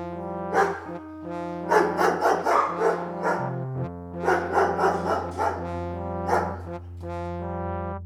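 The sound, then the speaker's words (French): A neighbour's dog barks repeatedly on a March morning in quick flurries, one early yap, then two rapid bursts of barking, over a steady, sustained tonal drone that continues throughout. “Ce matin de mars, je restais au lit à et sévère malgré les aboiements.”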